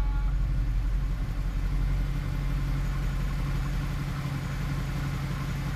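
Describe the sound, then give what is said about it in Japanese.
A 6.2-litre V8 high-performance engine of a convertible car with a folding fabric soft top idles steadily, a deep, continuous rumble with a faint rhythmic throb and no voices. “心臓部には6.2リッター V 型8気筒のハイパフォーマンスエンジンを搭載。”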